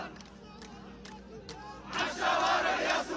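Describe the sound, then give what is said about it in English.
A large protest crowd of Hamas supporters in Vienna, Austria, dancing and cheering around a few police officers, roars and chants, starting as a steady murmur with scattered shouts, then swelling into loud, sustained cheering with energetic yells over the last second and a half. “There's a few police officers surrounded by this mass protest in favor of Hamas, dancing and cheering.”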